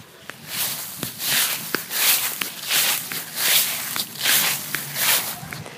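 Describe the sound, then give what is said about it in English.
A person walking in a residential area with large homes, near a sign for Harvest Park. Their footsteps swish steadily through grass, about seven rustling strides at an even walking pace, with a few faint sharp clicks in the background and no talking. “Can you hear me walking through the grass?”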